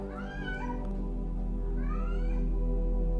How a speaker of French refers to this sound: Ah, il est incroyable ce chat. C'est sa journée aujourd'hui. C'est sa méditation en fait. Il s'est dit, je serai présent aujourd'hui dans cette méditation, je serai dedans.